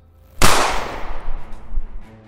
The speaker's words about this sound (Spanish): El segundo disparo fue más certero, impacta en una, en ala.